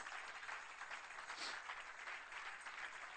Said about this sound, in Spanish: Dale un aplauso a la gloria de Dios.